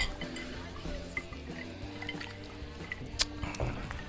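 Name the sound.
whiskey glasses clinking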